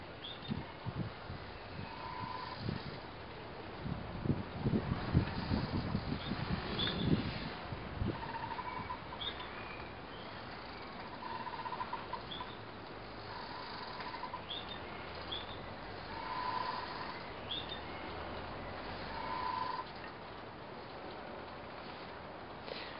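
Quiet outdoor ambience of the Veerhaven harbour on the Maas, with moored ships such as the Mary Lisa and the Okker from Rotterdam and the Jan van Gent gently bobbing, creaking and knocking, a cluster of low thuds early on, scattered short squeaks and faint bird-like chirps over steady background hiss.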